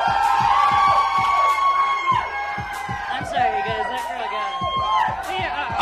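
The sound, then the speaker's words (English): A loud crowd of audience members screaming and cheering together, overlapping high-pitched yells and whoops filling the whole stretch with sustained, energetic noise, as the host asks who in the crowd wants to try the drinks. “I think I should go for whoever's screaming the loudest.”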